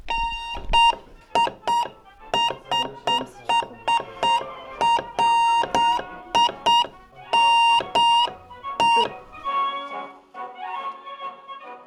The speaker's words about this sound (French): Il y a soit des points, soit des traits. Un point, ça veut dire que c'est euh, un son court et un trait, c'est un son long. Et du coup, bah, là, on va essayer de faire mon prénom avec euh, du Morse.